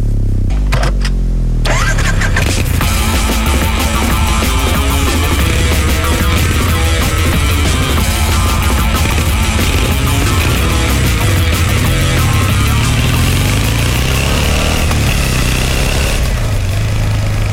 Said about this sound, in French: Son, son de la moto, première.